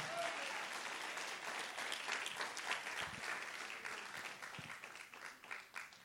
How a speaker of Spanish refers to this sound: Dale un aplauso fuerte al Señor.